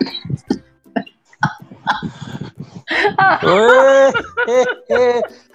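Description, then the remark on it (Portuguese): A run of short, dry coughs comes in quick bursts, followed by loud, drawn-out voiced sounds like strained laughter or groaning. “já a tosse, ó, já tá com tosse, já tá pegando friagem da terceira idade aí que eu tô precisando.”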